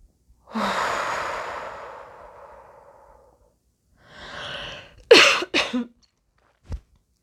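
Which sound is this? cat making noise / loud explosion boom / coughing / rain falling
coughing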